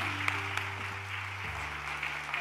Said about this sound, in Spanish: Gloria a Dios, vamos, denle aplauso a Dios, a Dios. Glorifique su nombre, gracias.